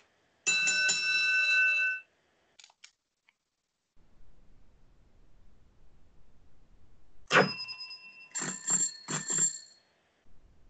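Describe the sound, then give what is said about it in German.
A bicycle bell rings in a long sustained trill, goes quiet, then rings again in several sharp, rapid bursts, bright, with no one speaking. “Warum eine Fahrradklingel?”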